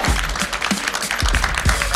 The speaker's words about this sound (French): Je voudrais qu'on les applaudisse très très fort tous les deux, s'il vous plaît.